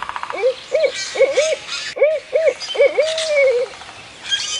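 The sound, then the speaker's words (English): A barred owl calls a rhythmic series of rich, rising-and-falling hoots, clear, ending on a long drawn-out note, with faint chirps from other birds in the background. “To signal it was okay to slip away and join her, she would hoot like a barred owl.”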